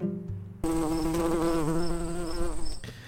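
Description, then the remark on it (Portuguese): A fly's buzz starts suddenly after a brief low hum, droning loudly with a wavering pitch for about two seconds, then cuts off. “Dito tudo isso, ouvidos atentos e cabeças abertas que a mosca vai decolar.”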